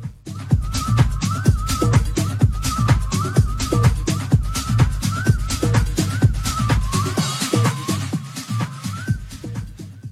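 An instrumental music break plays loud and continuous, with a steady driving beat, heavy bass pulses and a repeating melodic phrase on top. No one speaks.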